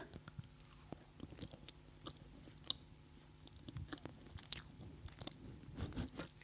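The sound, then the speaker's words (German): Crunchy chewing of a hard spiced gingerbread heart with a thin white sugar glaze and a chocolate base, with repeated crisp bites and smacking mouth sounds in an uneven rhythm, quiet, with no talking. “Wie fällt dir das Schmatzgeräusch? Das ist wunderschön.”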